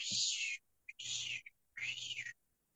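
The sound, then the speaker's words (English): A voice imitates the warbling of an overclocked MXR phase shifter guitar effect on guitar licks with three loud, hissing swooshes. Each one sweeps up and down over a low buzzing hum, separated by short pauses. “when you hear … playing those licks and they're just going”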